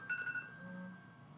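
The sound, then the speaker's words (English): A faint electronic timer goes off, a quick run of high-pitched beeps blending into a steady, thin electronic tone with a lower hum beneath it, and no voices. “That was the timer, but he didn't get a chance to argue yet.”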